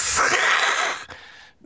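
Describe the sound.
A person imitates the cat-like hiss an animal makes when it chases someone: one long, harsh, breathy hiss lasting over a second, loud at first, then easing into a softer, thinner tail before stopping.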